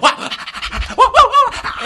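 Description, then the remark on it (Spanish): A small dog pants heavily, quick rhythmic breaths rasping in and out without pause, loud and strained, with no talking over it. “Ese perrito, ese perrito parece que se iba a morir.”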